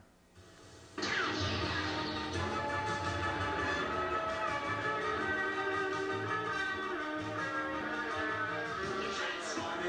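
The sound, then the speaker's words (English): After a brief quiet moment, a loud, upbeat cartoon theme song bursts in and plays continuously with dense instrumentation, sounding like it's coming from a TV or playback speaker. “Well, number fifteen on the list is let's just play it and see if what everybody. Thinks. Hopefully, everyone can hear it in the background.”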